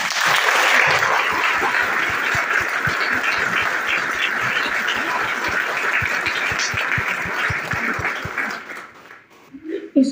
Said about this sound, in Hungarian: Köszönöm, vigyázz! ezt a gyönyörű bevonulást, úgyhogy akkor szerintem most így nem csak a hidegbe, hanem itt a melegbe is köszöntsük őket egy nagy tapsal.